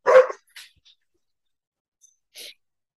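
Dogs bark: one loud, sharp bark up front, then two brief, softer yaps spaced out across the following seconds, with quiet gaps between and no voices.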